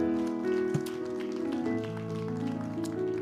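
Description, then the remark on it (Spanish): A crowd claps loudly and steadily as applause to God after a sermon, a dense patter of many hands, over sustained keyboard or organ chords playing underneath. “Dale un aplauso fuerte a nuestro Dios.”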